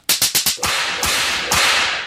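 A belt whip crack sound effect: four quick, sharp cracks snap in a fast rhythm, followed by two louder, crisp cracks that ring out with a bright hiss trailing off. No one speaks.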